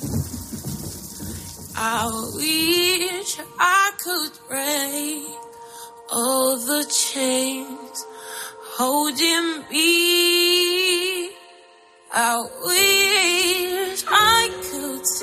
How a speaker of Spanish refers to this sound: Estamos escuchando la canción de la película Si todas las puertas se cierran, una película con tres historias entrelazadas por el problema de la prostitución y la trata con fines de explotación sexual basadas en hechos reales.